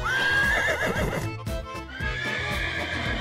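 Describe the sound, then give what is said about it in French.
A horse neighs loudly, a long shrill whinny that rises and wavers, followed by a second drawn-out neigh, with faint hoof clops underneath and no talking. “le propriétaire du cheval immatriculé 1252XB est prié de déplacer sa monture.”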